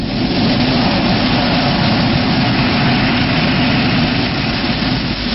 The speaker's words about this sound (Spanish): Oh, oh, oh, del jet, este se eleva nuevamente y entre los escombros del velero destruido ya no se ve señal alguna de vida.